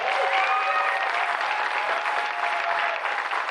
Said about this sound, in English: If you're thankful for your pastor, can you give him them a round of applause today.